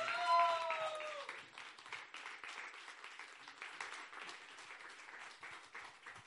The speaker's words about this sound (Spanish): porque nos recibimos eh, puestos de pie con un grande aplauso al portador de la palabra, el ungido del Señor en esta tarde,